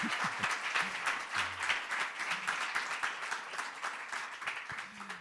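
Sustained applause from a crowd, a dense, steady patter of many hands clapping at once, fairly loud and even throughout with faint voices murmuring underneath.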